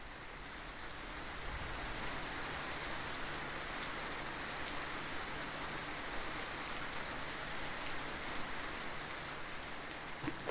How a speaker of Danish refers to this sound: og øh, det regner helt sindssygt, og det er det værste vejr.